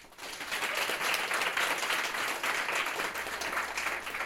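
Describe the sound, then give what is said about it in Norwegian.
Sustained applause from an audience welcoming two authors of the book 'Gleden med skjeden', a dense crackle of many hands clapping at steady loudness for several seconds, with no one speaking over it. “Gi dem en stor applaus.”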